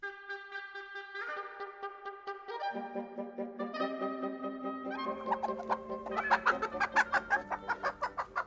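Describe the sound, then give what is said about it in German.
Chickens cluck and call, starting with drawn-out tonal notes and building into a rapid, rhythmic run of loud clucks toward the end, with no talking. “Hühner, eine Mehrklassengesellschaft.”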